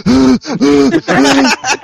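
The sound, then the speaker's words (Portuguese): Heavy, rapid panting right up against the microphone: four loud, voiced gasping breaths in quick rhythm, slightly distorted, with no other talk. “para de respirar, cacete. Para de ficar ofegante na porra do microfone.”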